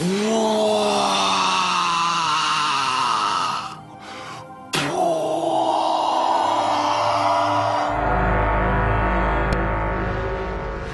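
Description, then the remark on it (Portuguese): A car engine revs hard, its whining tone rising and shifting before dropping out briefly mid-clip, then returns as a loud, steady rumble with a low pulsing throb. No one speaks. “Eu tô num carro a 60 km por hora.”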